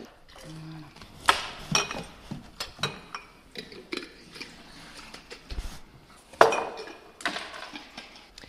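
Pots and pans clank and scrape as something is stirred, with a few sharp metallic hits standing out among steady kitchen clatter nearby, and a voice faintly in the background.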